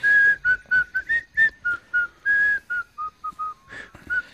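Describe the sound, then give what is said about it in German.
Someone whistles a tune in the distance, a steady run of short, clear notes rising and falling with brief gaps between them. No one speaks. “Du hörst in der Ferne ein Pfeifen, das dir noch unbekannt ist.”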